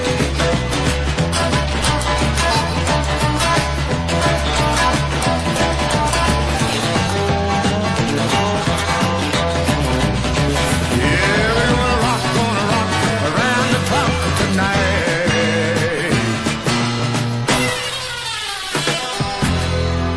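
A rock and roll song plays at full, steady volume, with a driving beat, bright guitar and busy instrumentation filling the whole twenty seconds. There's no talking over it.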